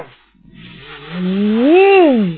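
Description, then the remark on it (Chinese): A giant dragon's roar as it coils and tumbles up and down around Zilong's body on a fighting platform: one long, loud, moaning cry that swells upward in pitch and then sinks again, carried over a steady rushing hiss, with no voices. “就见一条巨龙啊，围绕着子龙的身体是不停的上下翻滚，还嚎叫，吓得在场所有人是捏呆呆的发愣。”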